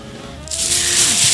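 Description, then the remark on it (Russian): A plastic garbage bag with presents packed in it rustles: after a brief quiet start, a steady, bright crinkling hiss sets in and continues fairly loudly to the end, with no one speaking. “вот я, да, шелустю, как да, ты сказал, это, с это, э, нашим это... непраздничным пакетом.”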